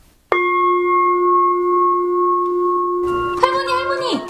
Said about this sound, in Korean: 저 종소리는 뭐야? 성당에서 절도 아닌데 왜 종을 치는 거예요? 아유, 종 쳤다는 거지. 인생 종 치고 이제 성당 이제 미사 끝날 때 됐다는 거지.